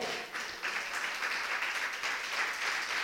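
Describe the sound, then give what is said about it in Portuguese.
A church audience applauds the Lord steadily, many hands clapping together in a dense, continuous wash of sound that stays fairly even and sustained throughout, with no voices standing out. “Você pode aplaudir o Senhor?”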